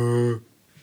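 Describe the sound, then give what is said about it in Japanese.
A wooden desk chair bought at a recycle shop gives one short, loud, tonal creak, a strained squeaky groan lasting a moment before it cuts off into near silence. “えー、さっきからねこの音ミシミシとねこれはあの僕の椅子ですね椅子の音ですね、えー、この椅子ですねデスクチェアこの椅子はあのリサイクルショップで買ったんですね”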